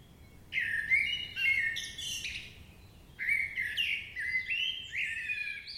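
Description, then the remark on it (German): Several songbirds twitter and warble together in a busy dawn chorus, two bursts of bright overlapping trills and whistles over a soft background hum, no voices. “Welch ein Singen, Musizieren, Pfeifen, Zwitschern, Tirillieren.”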